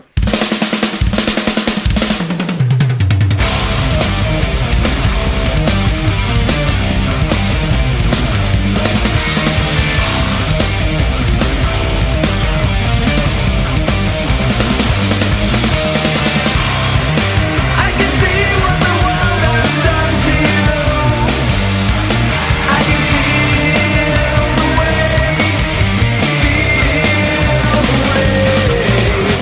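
Loud, dense progressive metal plays continuously after a brief quieter opening, with heavy distorted guitars, driving drums and clean sung vocals filling the mix at a steady, high volume.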